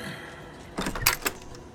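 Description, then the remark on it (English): A door without a lock is opened with a short cluster of clicks and clunks, a latch rattle followed by a heavier thump. “Mm, these doors without locks.”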